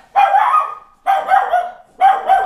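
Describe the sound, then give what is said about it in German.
A small female watchdog barks three times at a steady, roughly one-second pace, each bark short, sharp and high-pitched, fairly loud with nothing else in the background. “Mein Wachhund, mein Wachhund.”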